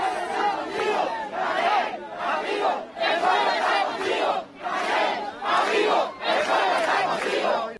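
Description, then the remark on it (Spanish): A large crowd chants the Cuban political slogan "Canel, amigo, el pueblo está contigo" in unison, loud, the phrase repeating in steady rhythmic bursts with brief dips between each shouted line. “Canel, amigo, el pueblo está contigo. Me parece que ya escuché esto antes, ¿verdad?”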